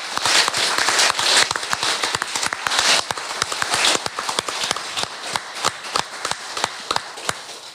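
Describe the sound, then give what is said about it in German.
Audience applause: a dense burst of many hands clapping that gradually thins out, leaving scattered individual claps toward the end. No one speaks over it. “ich würde sagen, das ist einen großen Applaus wert, ja.”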